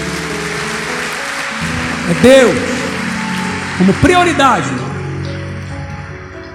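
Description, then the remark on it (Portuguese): Steady crowd applause fills the whole stretch, a dense even patter of many hands clapping, while a man speaks briefly over it. “Você pode dar um aplauso para ele, por favor, porque ele está aqui.”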